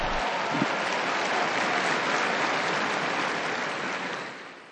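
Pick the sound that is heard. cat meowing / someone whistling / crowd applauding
crowd applauding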